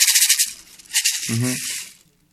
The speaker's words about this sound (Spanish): tenemos unos que están tallados a mano y se utiliza piedrita de, de hormiguero, que es lo que da el sonido muy, muy fino. Le llaman palo de lluvia, pero su nombre original es picahuasque, así se llama, y es también una, una sonajita